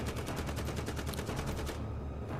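A man fires a warning shot: a rapid, evenly spaced burst of loud gunshots for nearly two seconds before cutting off into a dull background hum. No one speaks.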